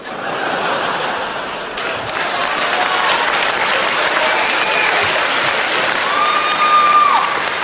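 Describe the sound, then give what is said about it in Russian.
Sustained hand clapping by musicians playing at a funeral, in place of cymbals left at home; dense clapping filling the whole stretch at steady volume, with a few scattered chuckles and a faint whistle near the end. “Да и почему вы хлопали в ладоши?”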